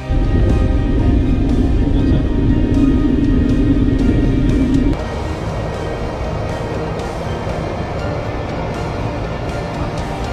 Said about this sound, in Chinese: 这里是波音七三七客机的驾驶舱，现在让我带着你从这个位置。一起去感受一下飞机的速度。